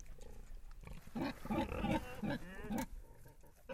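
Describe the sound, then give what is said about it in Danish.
A domestic pig grunts and snorts several times in a quick, uneven burst, fairly loud, with a low rumbling background before and after. “Vi har længe sat pris på gris i Danmark, hvor grisen har en lang historie som husdyr.”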